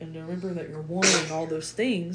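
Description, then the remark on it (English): A single sharp sneeze bursts out partway through, fairly loud, cutting across a man who keeps talking steadily around it. “bless you.”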